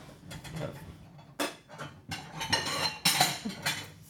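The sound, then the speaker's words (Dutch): A bowl for the vegetables is taken out from among kitchenware, with several sharp clinks and clatters of dishes knocking together, moderately loud, with no talking. “Nee bakje pakken voor de groenten.”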